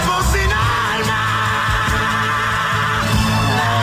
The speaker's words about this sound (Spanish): Acá está como en, un, modo … gritando. Escuchen este grito.